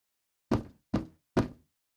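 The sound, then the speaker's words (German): Three heavy, evenly spaced knocks pound on an apartment door, each a sharp thud with a short decay, fairly loud against silence. “Unsanft durch ein Hämmern und ständiges Klingeln an der Wohnungstüre wurde sie geweckt.”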